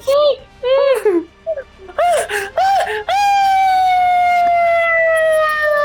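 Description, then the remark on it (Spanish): A voice imitates high-pitched, girlish screaming: several short wavering squeals in quick bursts, then one long sustained shriek that slowly sinks in pitch. Loud, with no other sounds. “aguanté la respiración y estaba gritando como nena.”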